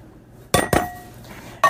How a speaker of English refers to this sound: So then you take the green, the green beans that are now drained and you put them in a microwave safe bowl